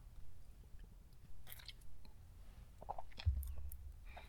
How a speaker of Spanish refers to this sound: Pausa para... Pues creo que ya es el último trago de café.